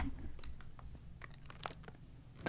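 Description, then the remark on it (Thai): Crinkly plastic snack packaging rustles and crackles in short, irregular bursts as a zip-lock snack bag is pressed shut, with a low background hum and no talking. “ขอปิดอันนี้ก่อนเพราะว่ากลัวไม่กรอบนี่เราชอบบรรจุพัธุ์เขามากเลย เพราะว่าเขามีซิปล็อกไว้ให้ด้วย”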